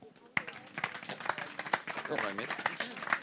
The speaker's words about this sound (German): Bitte Applaus.